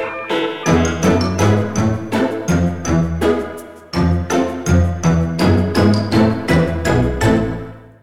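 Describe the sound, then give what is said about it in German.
A bright, loud musical jingle plays alone, with quick rhythmic tinkling notes over a steady bass, briefly pausing midway before repeating its upbeat pattern. No one talks. “Wir starten also die ganze Zeit mit Jingle.”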